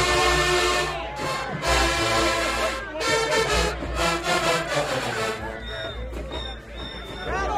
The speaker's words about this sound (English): Okay, come on, woodwinds. Boy, I hear the woodwinds.